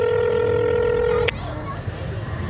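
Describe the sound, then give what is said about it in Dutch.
A steady electronic ringback tone from an outgoing phone call sounds for just over a second, fairly loud and buzzy, then cuts off abruptly, leaving quieter background noise. “zullen we Maurice even bellen? Even kijken hoor, voor mij gaat hij over nu”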